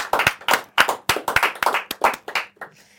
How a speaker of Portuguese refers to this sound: Palmas, faz favor, aqui no estúdio.